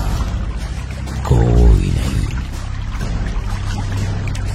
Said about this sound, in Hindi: और इतना कह के सागर ने पत्थर को धक्का देकर पानी में फेंक दिया रंजीत चीखता रहा और अचानक एक झटके से वो पानी में गिरा और कुछ देर तक पानी में बुलबुले सुनाई देते रहे